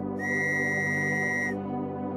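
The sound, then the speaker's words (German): A single shrill pea whistle blast for a waiting train sounds through a dark, foggy, drizzly November night, high-pitched and steady, holding for over a second before cutting off, with a low rumbling hum continuing underneath. “Eine schrille Trillerpfeife tönt durch die Finsternis.”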